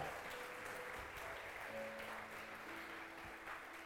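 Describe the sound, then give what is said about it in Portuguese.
An audience claps steadily in praise of God, a dense, sustained wash of applause, with faint tonal notes, likely from an instrument, sounding underneath throughout. “Você pode aplaudir a Ele, aleluia!”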